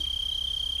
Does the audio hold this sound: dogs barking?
no